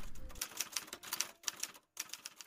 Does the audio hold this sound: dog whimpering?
no